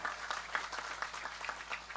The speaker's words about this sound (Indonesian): Tepuk tangan untuk menyenangkan semuanya.